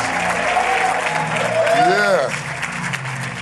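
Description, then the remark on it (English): An audience applauds and cheers loudly for Jesus after the introduction of Bishop T.D. Jakes, with steady dense clapping and scattered shouts and whoops rising through it. “Come on, give it up for Jesus in this place. Wow. You can do better than that. Make some noise in this place.”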